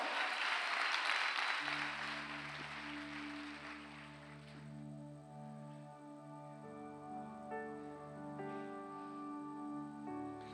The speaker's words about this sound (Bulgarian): О, ако ръкопляскаш, ръкопляскай като че наистина вярваш. Ако ръкопляскаш, ръкопляскай като че Той е твоя Отец от вечността. Камон!